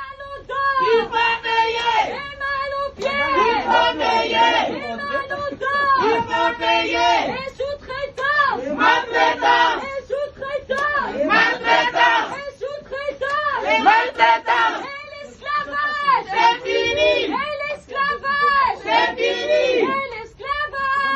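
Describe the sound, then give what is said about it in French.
A crowd of protesters chants loudly and steadily in a repeating rhythm outdoors in front of an Ibis hotel in Paris on 11 December, many voices shouting short slogans together in unison for the whole stretch. “Alors on s'est, on rencontrés euh, dans le cadre d'une mobilisation que vous aviez organisée devant un des hôtels Ibis euh, parisiens.”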